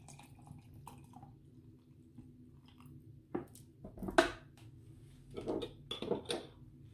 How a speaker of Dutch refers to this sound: Hierin hebben we nu semos, detox water, muntblaadjes, de restant van de restant van de frambozen gaan erin. Het ziet er goed uit, hè? De citroen aan de onderkant. gaan hem bijvullen met water.